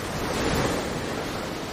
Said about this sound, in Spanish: Desde la orilla, el mar se siente así.